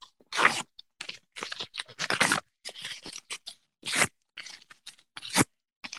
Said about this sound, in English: Can you hear that? I hear it. That's it. It's done. the list is no more. So you can go ahead and rip up, uh, rip up that paper that you have. Uh, the 2020 list is no more.